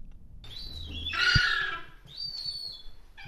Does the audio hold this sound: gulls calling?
yes